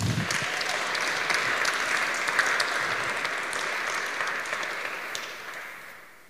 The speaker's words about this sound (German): Könnt ihr einen fetten Applaus geben?